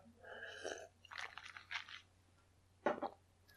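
drinking water

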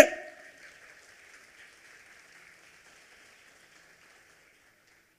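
audience applauding

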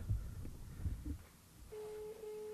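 telephone beeping

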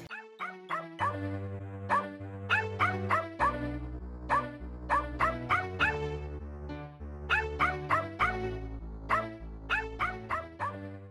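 dogs barking

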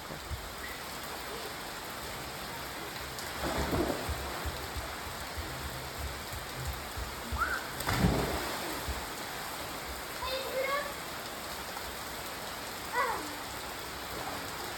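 rain falling

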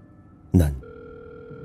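phone ringback tone

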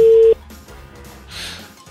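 telephone ringing

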